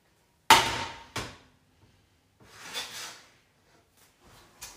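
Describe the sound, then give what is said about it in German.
Two sharp clanks of pots and pans, followed by a longer scraping rattle and a few softer knocks, as cookware is handled while cooking. “Wenn man aber die ganze Zeit irgendwie Geräusche hört, weil ich immer die ganze Zeit irgendwas mit Topf und Teller und was weiß ich mache.”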